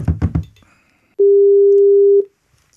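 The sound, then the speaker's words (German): A telephone call to an audience member being placed: a few quick dialing pulses, then a single steady, low-pitched ringing tone that holds for about a second before cutting off into silence. “Zuschauerraum heißt, wir rufen Dominik Mies an und erst dann sage ich euch die Frage.”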